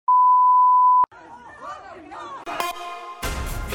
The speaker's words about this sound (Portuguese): Esse é o primeiro vídeo, acho que a gente colocou o bip, mas para bom entendedor, um bip basta, né?